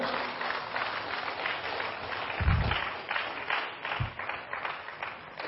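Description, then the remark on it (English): A church audience applauds steadily for the Lord after a prayer, the dense patter of many hands clapping at once, with a couple of low thumps partway through and no voices. “Give the Lord a clap.”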